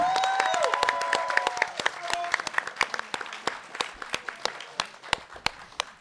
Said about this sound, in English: Like to thank everyone who came out, everyone in the audience. Give yourself a round of applause again.